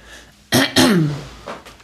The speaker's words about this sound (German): Hm, Moment, ich muss ja. Husten. Das kann ich, also äh, ich dann, nicht, das kann ich dann rausschmeißen. ich habe das immer wieder, dass ich von Nüssen danach husten muss.